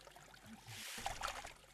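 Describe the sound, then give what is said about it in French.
A soft, steady trickle of a sacred forest stream during a ritual purification ceremony, a continuous burbling wash with a few brief bright plinks near the middle, fairly quiet, with no voices. “Nos grands ancêtres avec ces trois grains de riz jetés dans le ruisseau sacré, que le mal disparaisse.”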